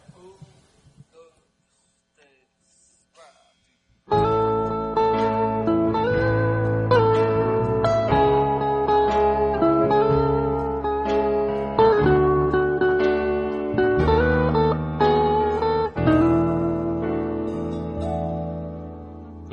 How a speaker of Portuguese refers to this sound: Agora vamos ouvir a mesma música com orientação correta.